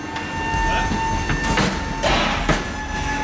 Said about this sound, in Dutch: En dankzij hem sta ik inmiddels in dat magazijn. Omringd door hoogste stellages met enorme aantallen dozen en, zoals je ook hoort, vorkheftrucks rijden van links naar rechts.